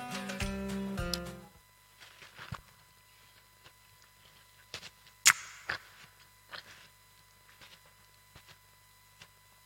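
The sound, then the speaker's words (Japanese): Quiet crunching and wet chewing of watermelon in scattered bites and smacks, following a brief tonal chime at the start, with no talking. “はいじゃあここでタイマー鳴ったのでスイカタイムやったなんだっけなんとかかんとかってあの咀嚼音聞かせるのあったよね YouTube でスイカって咀嚼音あんのかやってみよう”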